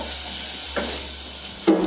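Onions sautéing in a frying pan give a steady, crackling sizzle throughout, with a soft scrape partway through and a sharper utensil clink near the end. No one speaks.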